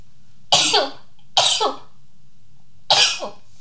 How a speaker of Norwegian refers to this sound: Oi sann. Prosit.